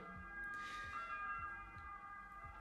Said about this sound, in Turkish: Oho. Ambulans resmen içeri geldi.